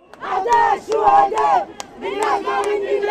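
A crowd chants loudly in unison at a large street demonstration opening the 2015 World Social Forum in Tunis, in the rain. Voices rise and fall in rhythmic bursts of shouted phrases with short pauses between them.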